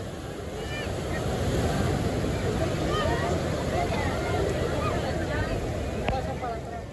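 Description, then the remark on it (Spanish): Ocean waves break on a beach by a border wall in a steady, full roar of surf that rises in the first second and holds, with faint indistinct voices. “Lo único que se podía escuchar eran las olas rompiendo en la playa.”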